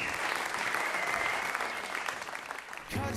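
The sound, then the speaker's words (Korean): A crowd claps steadily, a dense wash of many hands at a wedding, holding loud and even before fading slightly and giving way to a brief low-pitched tone at the end. “여러분 박수 부탁합니다.”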